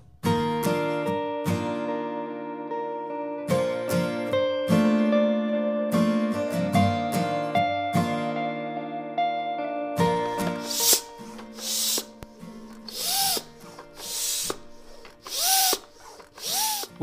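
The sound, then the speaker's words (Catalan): Fireplace bellows, a tool that blows air to revive a hearth fire, pumped in a steady rhythm, giving six or seven breathy whooshes of air, following a stretch of sustained tonal music with no voices. “és la manxa o bufador, un estri de gran utilitat per a llar de foc, ja que en accionar-lo l'aire fa revifar el foc que durant una pila d'anys ha estat l'element que ha escalfat totes les cases.”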